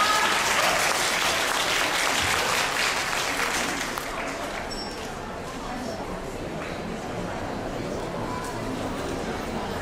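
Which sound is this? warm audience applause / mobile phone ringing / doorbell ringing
warm audience applause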